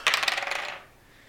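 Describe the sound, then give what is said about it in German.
A quick clattering rattle of dice tumbling across a hard tabletop, a burst of rapid bright clicks that fades out within a second, with no one talking. “Mit einer 15. Mhm, das ist ein Treffer. Mal Schaden hier, Würfel.”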